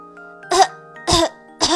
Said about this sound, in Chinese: 这是谁呀？真调皮，好呛人呀！路上的汽车和行人都咳嗽起来